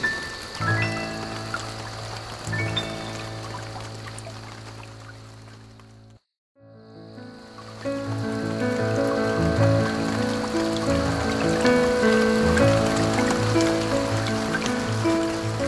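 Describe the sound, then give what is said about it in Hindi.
Steady Sawan monsoon rain patters and splashes on hard surfaces, a dense wash of drops with a brief silent break midway before it resumes a little louder. No one speaks. “वहां lamp post से छिप छिप के बूंदे बात करती हैं बड़ी चुपसी बहुत शाई सी है सावन की ये बारिश”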